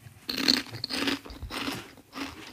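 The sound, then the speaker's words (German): Crisp, crunchy chewing of lentil or chickpea chips, several bursts of bright crackling in an irregular rhythm over a couple of seconds, with no talking. “Ich habe, glaube ich, noch nie Linsen- oder Kichererbsenchips gegessen, fällt mir gerade auf.”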